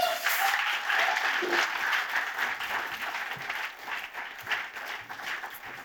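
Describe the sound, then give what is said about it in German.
An audience gives a warm welcome applause for a staff member coming forward for an interview. It claps steadily for several seconds, a dense, even wash of many hands, fairly loud throughout and tapering only slightly toward the end. “Geben ihm einen warmen Applaus, wenn er mehr vorkommt.”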